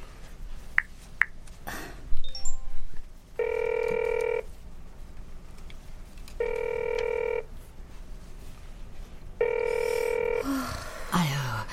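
A phone ringback tone sounds three times, each a steady, evenly spaced electronic ring lasting about a second, with brief clicks and faint rustling between them and no one answering.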